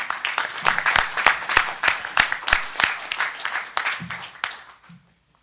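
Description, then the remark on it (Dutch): Audience applause at an Explore the North performance as a speaker is introduced onto the stage: a dense burst of many hands clapping, loud and steady for about four seconds, then thinning out and fading to silence. A few voices murmur faintly underneath. “Applaus”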